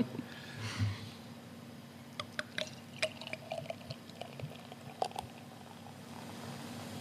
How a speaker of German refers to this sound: Hört man als Brauerin schon, wenn man, wenn man einschenkt, ähm, ob das ein, ein besonders gutes oder ein besonders schlechtes Bier ist? Mm ich sag mal so, wenn Bröckchen mitfallen, dann hört man es und dann ist es meist nicht gut.